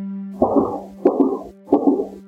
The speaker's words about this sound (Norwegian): Et kamera som er satt opp for å se etter mus på et loft i et hus like ved Mossehallen, har fanga opp lyd som kan være skudd.